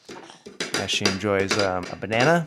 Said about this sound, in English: It's now 6.55 on a Thursday, and I'm down here in our um, living room slash uh, breakfast nook you can probably hear my one year old daughter in the background banging her plate